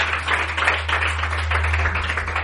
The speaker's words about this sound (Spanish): un aplauso, por favor.